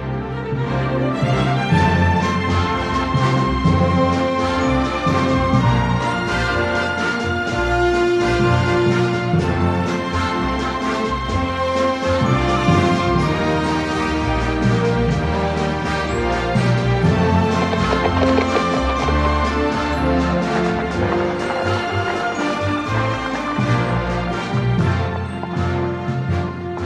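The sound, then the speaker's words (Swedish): Western-style film music plays steadily and loudly throughout, dense and instrumental with a trotting, clip-clop-like rhythm underneath. No voices are heard. “Ja, som ni hörde så känns det igen från westernvärlden.”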